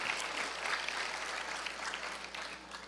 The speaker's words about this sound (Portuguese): Aplauda Jesus, aplauda Jesus.